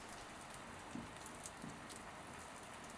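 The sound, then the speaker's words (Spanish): Steady wind-driven rain patters horizontally against thick window glass, a dense continuous hiss broken by a few heavier drops or gusts, fairly soft and with no voices. “Solo obtuve la respuesta de la lluvia, que debido al viento golpeaba horizontalmente las gruesas ventanas.”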